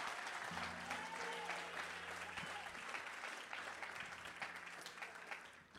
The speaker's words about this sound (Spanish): vamos, si usted lo cree, den un aplauso al Señor. Come on.